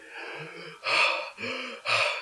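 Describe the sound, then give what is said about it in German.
A person imitates the heavy breathing heard from the next toilet stall, four loud, raspy breaths alternating in and out, each lasting about half a second, with no other sounds. “Das Atmen wurde schwerer, dann, dann kam so ein Grummeln, was aus so Richtung Bauch ging.”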